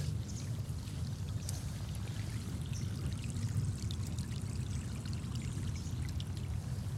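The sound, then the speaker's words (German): A rushing stream, formed by a downpour that flooded a field, pours steadily across a path into a forest: a continuous low churning roar with bright splashing and trickling detail on top, no voices, holding level throughout. “Und da hat sich sogar hier so ein so ein reißender Bach gebildet. Was für ein großartiges Geräusch. Und dann fließt der einmal komplett über den Weg hier.”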